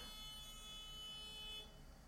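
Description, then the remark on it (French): Faint car horns honk from outside, a sustained blaring tone held for over a second before cutting off, with low street rumble underneath and no one talking. “Merci pour les klaxons.”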